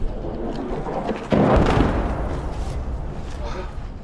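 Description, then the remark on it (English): An incoming Russian artillery round explodes on the outskirts of Bakhmut with a sudden, heavy boom that rumbles and slowly fades, following a steady low background roar, as if heard from inside a vehicle. “All right, where you can hear the incoming rounds. The incoming rounds from Russian artillery fire are really intensive here as we have entered the outskirts of Bakhmut,”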